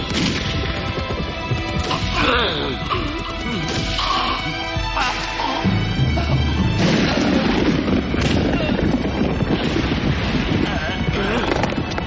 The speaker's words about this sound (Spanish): el ayudante sonríe con cinismo mientras el general escucha los disparos desde la galería.